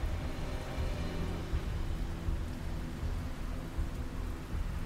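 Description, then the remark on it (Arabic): Heavy torrential rain pours down at sea in a dense, unbroken roar with deep low rumbling underneath, steady for the whole stretch, heard from a small boat as the waves rise; no voices present. “الموج بدأ يعلى المطر كان خفيف من ساعتين لكن دلوقتي بقى سيول”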